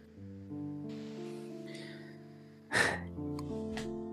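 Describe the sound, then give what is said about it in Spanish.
A doorbell sounds a ding-dong chime, its tones layering and ringing on for a couple of seconds. A short breathy burst cuts in near the end before the ringing tones continue. “Vale, pues escucha el din don del timbre.”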